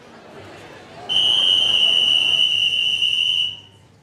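A single sharp, piercing whistle blast cuts through a murky background of crowd noise and chatter in a room, holding steady for over two seconds before stopping abruptly.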